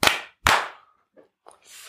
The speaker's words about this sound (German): So, klatschen.